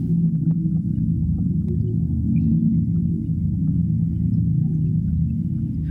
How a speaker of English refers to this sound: What you're hearing is part of a collaboration with sound art curator Andrew Spiro made for Documenta. It's called South Pacific Migration Party, and it's based on hydrophone recordings of blue whales.